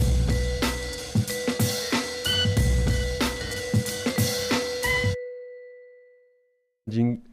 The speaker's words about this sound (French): Après ce jingle maison, tu vas voir,